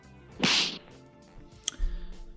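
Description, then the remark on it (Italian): A loud slap sound effect: a fast swishing whoosh ending in a sharp crack, followed a second later by a brief snap and a low thud. No one speaks. “Oggi un po' più rapidi del solito e quindi è arrivato già il momento di passare allo schiaffo della settimana.”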